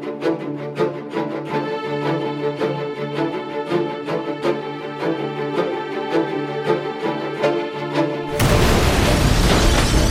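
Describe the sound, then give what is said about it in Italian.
Rhythmic music with steady beats plays for several seconds, then a sudden loud bomb explosion bursts in near the end, its roaring blast swamping everything and rumbling on to the close. “bombe, spari, scontri di piazza, morti.”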